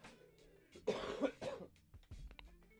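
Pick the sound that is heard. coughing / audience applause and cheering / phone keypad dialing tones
coughing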